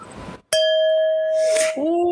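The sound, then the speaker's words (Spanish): A single bright clink of red wine glasses touching in a toast, clear, followed by a sustained pure ringing tone that hangs for over a second before fading into rustling. “Mi ugly Christmas sweater y una copita de vino tinto, ¿por qué no?”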